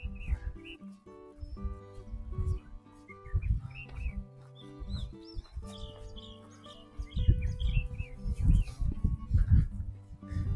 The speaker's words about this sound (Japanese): 一応ですね、あの、マイ、ピンマイクで話してるんですが、あの、ウィンドガー、ウィンドガード、モフモフじゃない。スポンジをつけてるんで、多分、風の音は入ってないと思うんですけど、鳥の声は聞こえると思うんですよね。